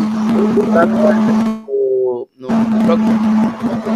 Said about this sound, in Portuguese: Está vendo alguma interferência em termos de áudio aí? Será que é a minha? Algum, algum liquidificador ligado, né?